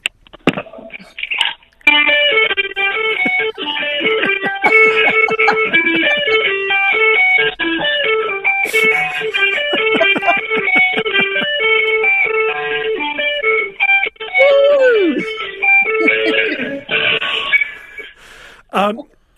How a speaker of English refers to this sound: Now, we've got a surprise for our listeners across the country. Have you got guitar in hand? I do, I do. All right, put down that um, phone on speaker and take it away.